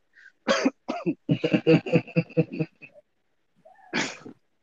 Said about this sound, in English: must spit.